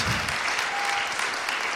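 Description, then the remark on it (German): Steady, dense applause from a church audience welcoming the newly baptized, a continuous wash of many hands clapping at an even, fairly loud level with no one speaking over it. “Ich denke, die haben einen Applaus verdient.”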